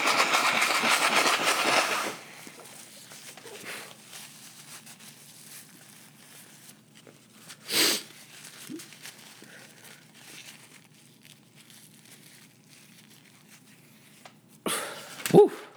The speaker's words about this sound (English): Oh man sorry, I'm over here blowing my nose and stuff.